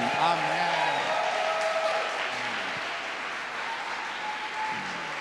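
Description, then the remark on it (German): A church audience claps steadily for several seconds in applause for Jesus during a service, a dense wash of applause, with voices calling out faintly underneath. “Ja, lass uns Jesus doch nochmal einen richtigen, richtigen Applaus geben.”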